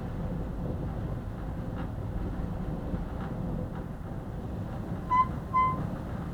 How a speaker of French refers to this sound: Ça, c'est la porte qui vient de s'ouvrir à cause du vent. Parce que la porte ne ferme pas.